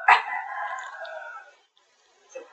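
A goose gives one loud, drawn-out honk lasting over a second, nasal and harmonic, then falls silent before a faint stir of sound near the end.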